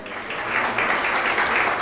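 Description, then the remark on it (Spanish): A crowd claps steadily for children called forward with their parents, a dense wash of many hands that holds at a fairly loud, even level for a couple of seconds, with no voices standing out. “Denles un aplauso, por favor.”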